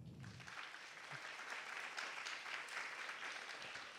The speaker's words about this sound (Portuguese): Mostra de Cinema de Tiradentes a imaginação como potência. O ator e cineasta Jean-Claude Bernadette e a produtora Luana Melgaço. Vamos aplaudir da mesa?